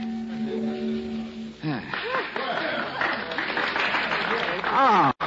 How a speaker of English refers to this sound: Thanks, ladies and gentlemen, for your kind applause.